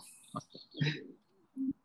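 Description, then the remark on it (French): Birds chirp in short bursts over a couple of seconds, mixed with a few low, cooing calls, moderately loud. “J'ai retrouvé les oiseaux.”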